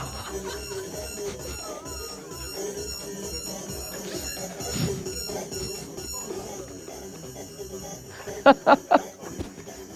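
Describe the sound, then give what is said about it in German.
A produced intro trailer for a sports segment plays steadily: a dense, humming electronic bed with sustained synthetic tones, ending in four loud, sharp pulses in quick succession before fading out. “Soll ich den Trailer nochmal laufen?”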